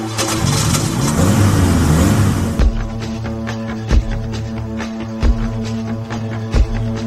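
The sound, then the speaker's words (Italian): A car engine roars and revs up with rising pitch, then drops to a steady low hum broken by regular heavy thumps every second or so, as the car speeds along viale Poeto. No one speaks. “La signora andava a 200 in viale Poeto, tranquilla e precisa.”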